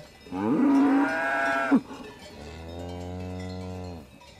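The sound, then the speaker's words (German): Two long, drawn-out cow moos on an alpine pasture, the first higher and straining, the second deeper and steadier, with faint cowbell clinking in the quiet background and no one talking. “Das finden auch die Rindviecher ja, auf der Alm.”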